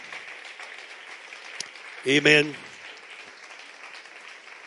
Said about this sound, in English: Would you clap your hands and let's give the Lord thanks one more time? Praise God.